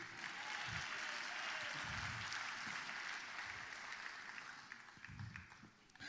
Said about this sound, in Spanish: Le está dando brega aplaudir.